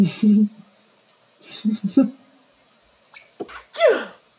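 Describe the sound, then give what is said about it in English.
A person builds up with a few sharp inhaled gasps and breathy catches, then lets out a loud sneeze at the end, with a quick breath afterward. “I feel like I have to sneeze.”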